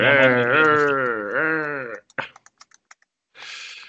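A short burst of fingers tapping on a computer keyboard, about eight crisp, irregular clicks, close and clear, following a long bleating sound and ending before a brief breathy hiss.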